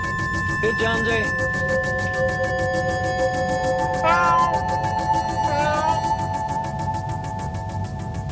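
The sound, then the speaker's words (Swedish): A cat meows three times at uneven intervals, each call rising and falling, heard over a steady low mechanical hum and background drone. “Here, kitty, kitty, kitty, kitty, kitty, kitty.”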